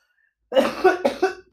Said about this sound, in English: Sorry, I got stuck felt the fucking cough coming.